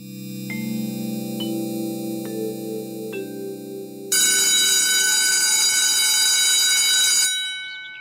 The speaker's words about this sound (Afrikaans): Die skoolklok het pas gelui en die kinders stroom in die klaskamer in, gevolg deur juffrou Sandra.